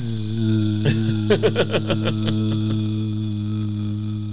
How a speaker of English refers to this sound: And you can hold zipping it down and, and make, make, the zipper go as long as you need it to. Zip. Yeah, maybe at some point it sounds like a bee.